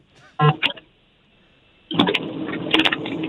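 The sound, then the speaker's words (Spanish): A car engine sputters briefly, falls quiet, then rumbles and revs steadily for several seconds, loud, with metallic clatter mixed in while the car is being repaired. “No, hombre, aquí le está arreglando el carro?”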